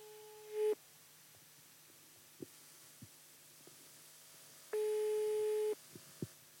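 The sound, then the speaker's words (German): A telephone ringback tone purrs twice as a call is placed to a prize winner, steady electronic beeps about four seconds apart, with a faint line hum and small clicks between them, and no one picks up. “Und jetzt rufen wir dich an und fragen Ver dich, wie du den äh, Gewinn erhalten willst.”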